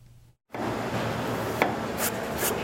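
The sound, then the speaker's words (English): Radish being chopped and shredded by a handmade radish cake maker for radish cakes ahead of Lunar New Year: a steady, dense rasping scrape runs continuously after a brief silence, with a few sharper chopping knocks cutting through near the end. “Radish is chopped, shredded, and put on the stove.”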